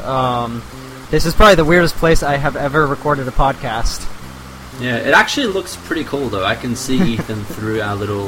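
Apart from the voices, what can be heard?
rain falling outside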